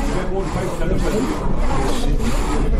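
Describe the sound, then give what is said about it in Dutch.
A hand rubs back and forth across the rough, sawn surface of an ordinary coarse tree trunk, over the grooves left by the saw. It makes a continuous coarse scraping that swells slightly with each stroke. “En uh, ja, je voelt dus, ik kan ook zien de, de, de gleuven waar die zaag doorheen gegaan is.”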